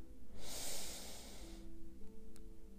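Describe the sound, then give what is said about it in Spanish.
A single breathy airflow lasting about a second, a deep breath in through the nose and slowly out through the mouth, fades out over a faint steady hum. No one speaks. “Al inhalar por la nariz, llenar mi vientre y muy lentamente exhalo por la boca hasta quedarme sin nada de aire.”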